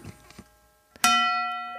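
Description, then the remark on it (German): A single bright doorbell chime strikes sharply and rings out with a long, slowly fading tone, preceded by a few faint, quiet knocks and rustles. “Alex, kommt noch dein, dein Turmpersonal um diese Uhrzeit?”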